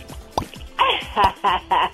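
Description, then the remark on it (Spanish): A series of about five wet, smacking pops in an uneven rhythm, like gum bubbles snapping, probably made with the mouth to imitate chewing gum bubbles popping. “Báñate con agua fría o mastica chicle. Fíjate que el chicle te ayuda contra la tristeza.”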